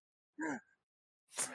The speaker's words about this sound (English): Bless you.